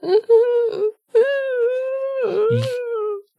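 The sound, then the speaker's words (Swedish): A person vocally imitates someone lying down and whimpering: two sustained, wavering whiny tones with a brief break between them, fairly loud, with no other talking. “Samtidigt som eh, det hör liksom så här, han ligger och gnyr. Så här.”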